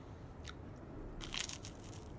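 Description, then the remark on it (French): A woman quickly eats her breakfast in the morning, crunching and chewing: a few crisp bites at first, then a denser cluster of crunches, all fairly soft with no talking. “Après s'être préparée et mise en beauté, elle avale son petit déjeuner rapidement.”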